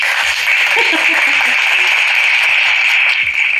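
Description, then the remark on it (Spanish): A steady, loud burst of applause, a dense wash of many hands clapping at once that holds evenly for a few seconds without fading. “Ah, pero vamos a darle aplausos.”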